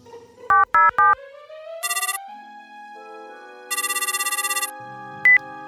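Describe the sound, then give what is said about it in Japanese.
A phone call being placed: three quick dialing beeps, then two trilling electronic ring bursts with a pause between them, and a final short beep. Clear, no voices. “これどうしたらいいですかねそれはな、この電話番号に電話をかけた方がいいぞ。”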